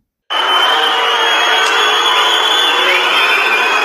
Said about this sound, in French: on a vu fuser des insultes, des cris, des sifflets, des hurlements, ainsi que des personnes tournant le dos au passage du carrosse royal à la haie.